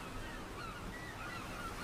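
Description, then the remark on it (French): Several seagulls call in short, rising-and-falling cries over a steady wash of waves at a calm beach, both fairly faint, with no one speaking. “Tout était calme et l'on entendait surtout les mouettes et le bruit des vagues.”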